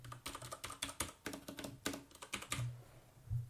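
Rapid, clattery keystrokes on a retro 1980s–90s-style mechanical keyboard, crisp, in uneven bursts with a few heavier thocks; no one speaks.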